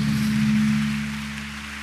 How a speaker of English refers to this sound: I didn't ask you to clap, so if you are clapping, clap well.